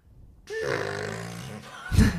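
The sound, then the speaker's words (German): A person vocally imitates an agitated elephant cow that was with her calf, giving a drawn-out, strained trumpeting cry followed by a short, harsh blast of breath. Loud, with no speech. “Also, da war eine, eine Recht aufgebrachte Elefantenkuh äh, mit ihrem ähm, Baby.”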